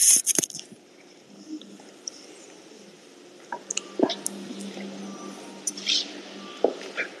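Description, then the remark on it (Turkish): Headphones clatter as they are dropped, a sharp rustling burst at the start, followed by scattered small clicks and knocks of handling over a quiet background. “Ben kulaklıklarımı düşürdüm ya.”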